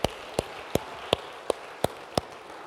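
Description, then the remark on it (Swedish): An audience at a church service applauds to encourage the worship team: a steady, hissy wash of clapping with seven sharp, evenly spaced claps standing out above it in a regular rhythm. No one speaks. “Kan vi ge uppmuntran genom att ge en, en stor applåd?”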